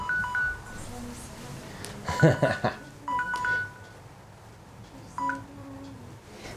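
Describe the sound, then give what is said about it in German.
A phone timer alarm beeps in short electronic tone pairs that repeat every few seconds, moderately quiet, with a burst of laughter and voices between the beeps. “Dein Handy piept.”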